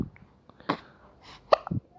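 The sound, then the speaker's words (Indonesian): Several short, sharp hiccup sounds, apparently imitated by voices, pop out at uneven intervals from a quiet background, with a couple of them landing almost back to back near the end. “bareng bareng cegukan lah”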